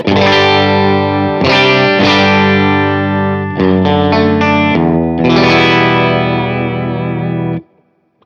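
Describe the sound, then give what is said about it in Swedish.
A driven electric guitar on the bridge pickup, plugged straight into an amp with the controls set roughly flat, a bit more treble and a little reverb, plays sustained chords with a slight reverb tail and a brief run of choppier strums in the middle, loud, then cutting off abruptly. “Kanske lite mer diskant. Och så pyttelite reverb på då.”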